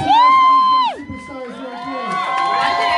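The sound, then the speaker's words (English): A crowd cheers and whoops loudly for a baby, with a high sustained shout at the start dropping off, then a dense wash of many voices cheering and shouting together throughout. “that you just heard all those cheers for”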